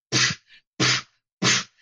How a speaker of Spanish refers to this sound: Y, bueno, a ver, las primeras películas de chinos eran así, ¿no? Todos los golpes sonaban igual, daba lo mismo que te dieran un puñetazo en la cara que una patada en las pelotas